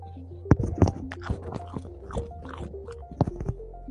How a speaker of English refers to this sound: Um, yeah. Uh, yeah, just get good old crunch and munch.